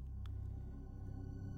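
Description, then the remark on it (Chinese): A low, steady rumble of thunder rolls on continuously during a lightning storm, deep and fairly quiet, with a brief faint crackle near the start and no voices. “轰隆隆，一道又一道的闪电照得天地间如同白昼。”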